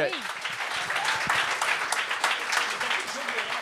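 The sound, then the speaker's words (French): A burst of audience applause for a performer's self-written comedy number, dense and steady throughout, with many hands clapping at once and a few voices chattering and calling out underneath. “Puis, euh, des, on peut l'applaudir.”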